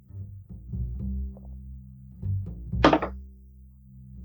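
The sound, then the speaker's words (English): A ten-sided die tumbles onto a table: several soft, muffled thunks followed by a brief, bright clattering rattle as it settles. No one speaks. “All right, roll me a d10.”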